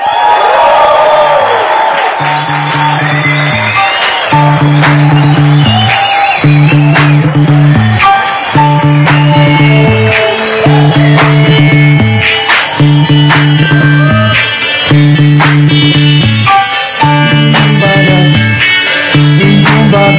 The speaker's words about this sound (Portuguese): Então, nos ajuda a receber de uma forma calorosa, de pé e com muita salva de palmas, somente com essa plateia sabe fazer.